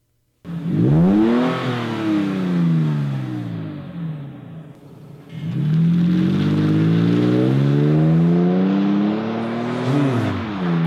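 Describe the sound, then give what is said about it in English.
A Borla S-Type exhaust revs twice, each pull rising in pitch as the engine climbs, with a deep raspy harmonic growl, a brief dip between runs, and no talking. “All right, so I'm going to play a exhaust note for you. Okay. From a Borla system. This is an S type.”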